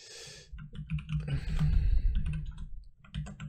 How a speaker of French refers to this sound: J'écris n'importe comment. Oui, et vous profitez du bruit de mon clavier, je pense.